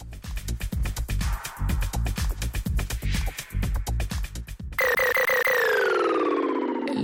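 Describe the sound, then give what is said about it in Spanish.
Electronic music with pounding, evenly spaced beats over deep bass, then a switch to loud, siren-like synth tones that slowly glide downward. No voices. “Escuchemos un poco de la música electrónica”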